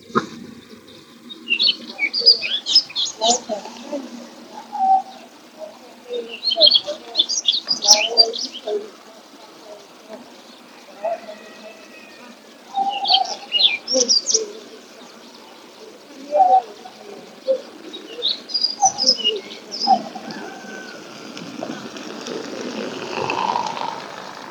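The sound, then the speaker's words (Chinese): Two or three Daurian redstarts calling: repeated bursts of short, high, thin chirps and twitters, coming in clusters every few seconds, with softer lower notes mixed in, the birds answering each other. “不错，我录，我现在录的这个其实就是北红尾渠的叫声。”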